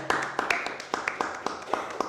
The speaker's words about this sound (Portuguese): vamos dar uma salva de palmas aqui